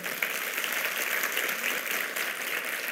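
Steady applause from a crowd, a dense wash of many hands clapping at once that holds an even loudness for the whole stretch with no voices standing out.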